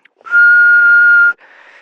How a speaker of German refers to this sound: Wir werden so einen Schlüsselanhänger mit so einem Pieper an den Abzug hängen. Und wenn man pfeift, dann pfeift er zurück.